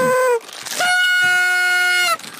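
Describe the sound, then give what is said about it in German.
A car horn honks in one sustained, steady blast of about a second and a half, loud, preceded by a brief falling tone. “Muss ich jetzt pupen oder nicht? Äh, hupen”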